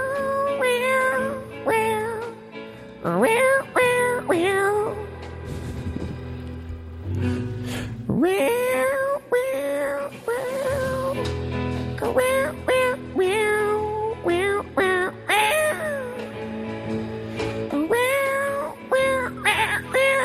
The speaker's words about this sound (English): I got a cat on line three, wants to sing a song.